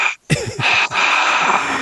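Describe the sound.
A voice imitates a cheering crowd with a breathy, wheezing rush of air from the mouth that sounds like heavy breathing, sustained and broken by a couple of short gasping pauses.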